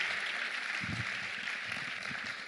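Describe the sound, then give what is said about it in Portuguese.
An audience at a church service applauds steadily throughout, a dense, even wash of many hands clapping at moderate volume, with a few faint voices mixed in beneath the clapping. “Se você crê nisso e aceita a bênção da jornada, dê um forte aplauso e diga: Deus, eu estou aqui e eu recebo em nome de Jesus.”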